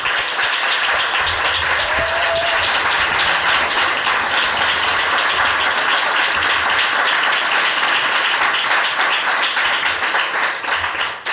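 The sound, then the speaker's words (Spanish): A crowd at Vanguard gives its first applause of the event, clapping steadily for about eleven seconds, a dense, even wash of many hands clapping at once with no voices standing out. “A ver cómo suena un aplauso aquí, Vanguard”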